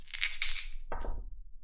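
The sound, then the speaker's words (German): Two six-sided dice, rolled for an air attack in a game, rattle and clatter across a hard tabletop, a quick burst of bright clicks followed by a lower tumbling knock as they settle, with no talking. “Würfel mit zwei Sechsetter.”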